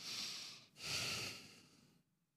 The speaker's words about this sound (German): lang durch die Nase ein- und ausatmen. Beides machen. Hände zusammenpressen, Brust aktivieren, Nase ein- und ausatmen und vorne überbeugen.